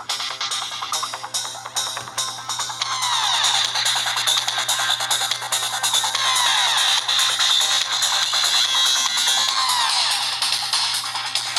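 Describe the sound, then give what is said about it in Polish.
Music blares from a smartphone loudspeaker turned all the way up, tinny and thin with almost no bass, playing loud and continuous for the whole stretch with no one talking. “niestety to jest już maksymalna głośność, ale y, spróbujemy jeszcze drugi utwór.”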